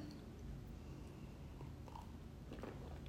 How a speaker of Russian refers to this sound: Буду глотать немножко чая